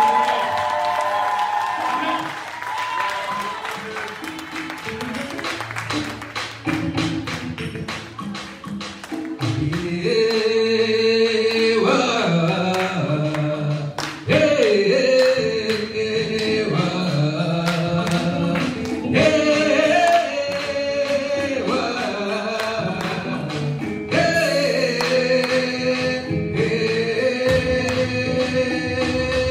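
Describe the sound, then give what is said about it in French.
A church audience cheers and acclaims Jesus Christ of Nazareth loudly and without pause for about half a minute, applause and raised voices mixing with sustained pitched sounds like singing or music underneath. “Est-ce que tu peux acclamer Jésus-Christ de Nazareth Je ne te demande pas d'applaudir, j'ai dit d'acclamer Jésus.”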